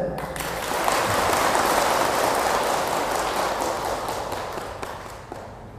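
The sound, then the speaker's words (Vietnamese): A crowd of Buddhist followers claps steadily for several seconds, a dense crackle of many hands that swells quickly, holds, then slowly thins with a few separate claps near the end. No one speaks. “xin quý phật tử hãy dâng cao trào pháo tay để cam kết”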